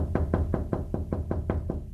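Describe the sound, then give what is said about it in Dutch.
A truck driver raps rapidly on a window, about eight sharp, evenly spaced knocks in two seconds, moderately loud over a low steady hum, with no voices. “En om vijf uur staat er een vrachtwagenchauffeur op de raam te kloppen.”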